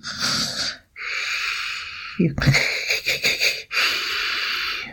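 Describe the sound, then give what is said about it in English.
A voice imitates a baby's soft snores: breathy, wheezy in-and-out breaths repeated several times with brief pauses, fairly loud, with a short snort-like catch midway. “little baby snores.”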